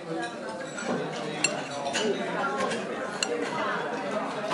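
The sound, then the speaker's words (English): Breakfast dishes and cutlery clink sharply every second or so, a few distinct knocks of metal on crockery, over a steady murmur of indistinct voices chatting in the background. “This is the sound of breakfast.”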